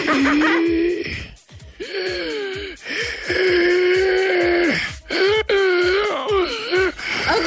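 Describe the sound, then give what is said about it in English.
A voice imitates the wheezing gasps for breath of a massage therapist who smoked cigarettes: about four loud, strained, pitched rasping breaths in a row, each wavering in tone and separated by brief silent pauses. “Like when I hear that, Well, it makes me feel like I can't breathe.”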